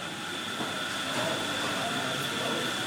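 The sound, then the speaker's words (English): A steady, loud mechanical whir of coffee being ground in a grinder in Enfield, running continuously without pause, with a gritty hiss and a faint high whine throughout. “We were, uh, it was just a grinding of some coffee you heard there as we were, we in Enfield.”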